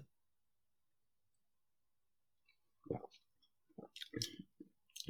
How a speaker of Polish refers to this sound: Łyk wody.